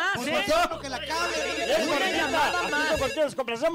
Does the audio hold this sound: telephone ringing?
yes